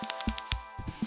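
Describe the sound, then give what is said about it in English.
A planet-shaped baby rattle filled with tiny pebbles is shaken, giving about five quick, gritty rattling bursts in just over a second, fairly soft overall. “First, I opened up a little baby rattle it was in the shape of a planet and filled with tiny space pebbles.”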